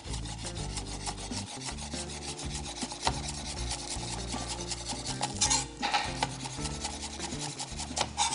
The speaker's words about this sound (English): So we'll go ahead and get our garnish. A little bit of green onion my favorite. We're gonna cut that ends off and we're just gonna slice that on a bias, all for presentation.